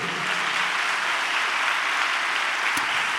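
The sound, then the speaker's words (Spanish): An audience applauds steadily in praise of Christ, a dense, even wash of many hands clapping at once with no pauses, sustained at a constant level throughout. “Dele un aplauso a Cristo, a su nombre, gloria.”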